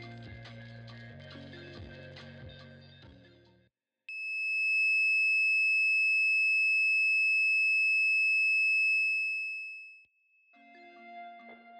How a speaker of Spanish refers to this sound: Bueno, pues así sonaba más o menos este famoso tono de 2600 Hz.